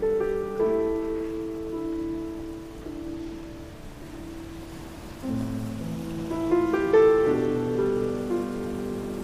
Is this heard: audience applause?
no